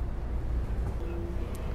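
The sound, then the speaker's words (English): Steady low rumble of a train going steeply downhill through a tight curve, with a faint, thin metallic squeal from the wheels rising briefly near the end, no voices. “And you can hear from the squeaking beneath us how tight the curve is.”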